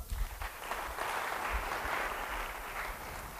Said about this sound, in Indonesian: Betul apa tidak kira-kira? Betul apa tidak? Yang bilang betul beri tepuk tangan.